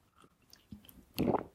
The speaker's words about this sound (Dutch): wat ik dus, ik nam even een slokje van mijn thee.